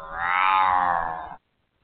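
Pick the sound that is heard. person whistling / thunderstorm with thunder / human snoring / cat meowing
cat meowing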